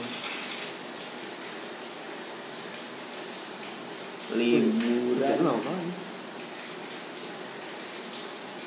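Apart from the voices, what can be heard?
light drizzling rain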